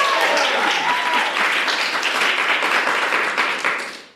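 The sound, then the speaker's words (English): A live audience at CampFI, a financial independence event, applauds loudly and steadily for about four seconds, with a few cheers and whoops mixed into the dense clapping before it quickly tapers off. “We have Diania Merriam from Optimal Finance Daily make some noise.”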